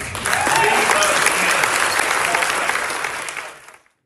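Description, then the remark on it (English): A crowd at a political event applauds Abbott for talking about school vouchers and fighting woke ideology, steady dense clapping at a loud, even level for a few seconds before it quickly dies away. “Now, at that event, Abbott gets applause both for talking about vouchers and for fighting the woke ideology, right?”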